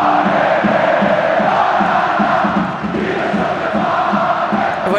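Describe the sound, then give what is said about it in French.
A dense, loud stadium crowd of Sochaux football supporters cheers and chants continuously, with rhythmic pulses in the roar suggesting a repeated chant sung in unison. “Et des supporters également en totale extase.”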